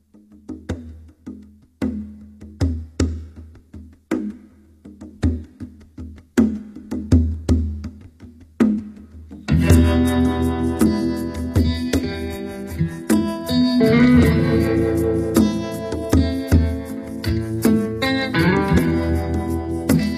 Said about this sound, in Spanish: yo les traje eh, un tema que se llama …. Vamos a escucharlo